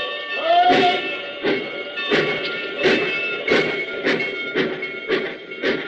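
A train pulls out and rolls along the tracks with a steady, rhythmic clickety-clack of wheels over rail joints, accompanied by a sustained metallic whine, moderately loud.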